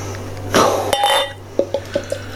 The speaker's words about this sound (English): Let's get it open into a glass and see what we get. so he's actually opening the bottle like right into the camera. It's nice. really funny.